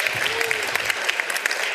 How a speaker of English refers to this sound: All right, give her a round of applause. Very good.